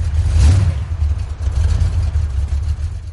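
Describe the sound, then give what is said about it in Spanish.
A black car's engine rumbles steadily in a low, continuous drone, swelling briefly near the start as it pulls up by the roadside in a street, then settling into a running idle. “Un coche negro llega.”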